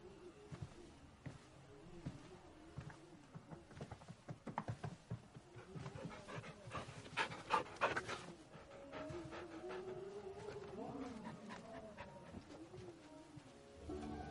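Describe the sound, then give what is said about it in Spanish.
A dog pants steadily and rhythmically as it walks into a house hallway, quick breathy huffs running through the whole stretch with a few louder bursts midway, and no one speaking. “El perro y ella entran en el pasillo, se detiene bajo la trampilla y la mira.”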